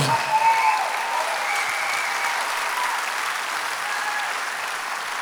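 An audience claps steadily, a dense, even wash of applause that holds at a fairly constant loudness for about five seconds with no voices standing out.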